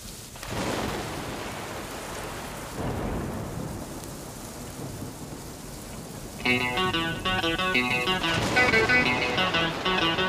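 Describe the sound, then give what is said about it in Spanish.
Steady rain pours down on Montevideo in a continuous hiss, with low rumbling thunder beneath it. Partway through, a melodic musical pattern enters over the downpour, and no one speaks. “lluvia cae sobre Montevideo, hoy como ayer.”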